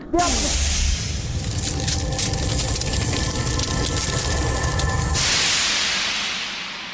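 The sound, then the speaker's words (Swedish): A cryogenic freezing machine is activated to freeze a person: a loud, steady hiss of spraying gas pours out for about five seconds with a faint mechanical hum beneath, then tapers off into a softer fading rush. “Aktiverar nedfrysningen.”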